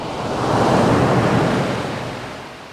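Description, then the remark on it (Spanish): A single ocean wave rushes onto the shore, its broad hiss swelling and then slowly easing back as the water recedes, with no voices. “Imagina que estás frente al mar y el agua moja tus pies.”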